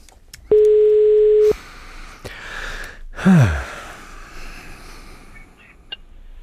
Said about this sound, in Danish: jeg ringer lige op til ham, det og ser, om han kan komme i morgen.